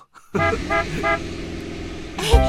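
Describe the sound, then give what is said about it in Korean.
A bus horn honks three short, evenly spaced toots over a steady idling engine rumble as the bus arrives, then one louder, brighter blast near the end. “버스 왔다. 타자.”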